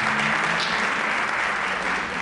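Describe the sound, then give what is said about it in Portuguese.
Steady, sustained applause from an audience, a dense wash of many hands clapping at an even loudness throughout, with no voices standing out. “Se recebessem com uma salva de palmas, se pediram.”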